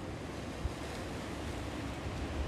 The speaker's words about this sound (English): we can be aware that the ocean is flowing and the, the waves are crashing.